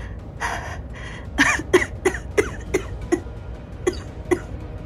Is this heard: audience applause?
no